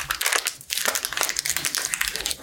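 A fortune cookie's plastic wrapper being crinkled and crushed as it is opened, a steady run of sharp, crackly rustles with a brief pause partway through; no one speaks.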